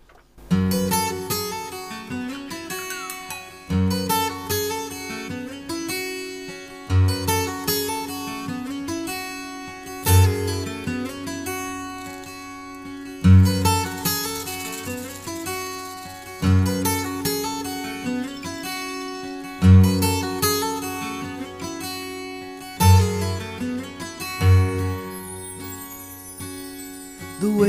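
An instrumental song intro plays with sustained, layered tones and a deep pulse recurring every few seconds, fairly loud and steady throughout, with no voices.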